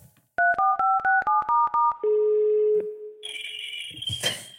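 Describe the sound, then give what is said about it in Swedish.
A rapid run of about eight phone keypad beeps dials a number to place a call, then a single steady ringback tone sounds before a brief burst of higher electronic tones and static. Clear, with no talking. “nu ringer vi Max och frågar”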